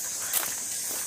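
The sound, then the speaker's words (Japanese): Soft footsteps crunch along outdoors while walking a dog, a couple of quiet steps, set against a steady high-pitched buzzing drone of cicadas in the background. No one speaks. “今日はあの犬の散歩をしながら、はい、セミの声を聞きつつ”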